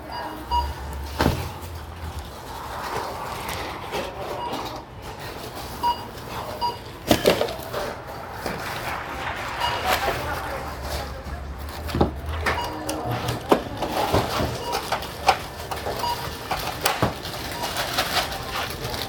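A busy supermarket checkout counter with repeated clunks, rattles and scanner-like clatter of items being handled, sharp knocks standing out over a steady murmur of store noise and occasional voices.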